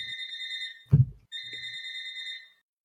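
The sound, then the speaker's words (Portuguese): A telephone rings in two long electronic bursts of steady high tones, separated by a short thud-like knock, clear with no one speaking. “Pendi o telefone. Peraí.”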